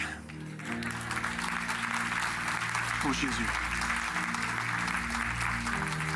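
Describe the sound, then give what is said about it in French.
An audience at a Good Friday 2022 evening church service applauds steadily for several seconds, a dense, continuous wash of clapping over sustained keyboard chords, with one voice briefly calling out over the noise. “Hallelujah Quelqu'un applaudit avec.”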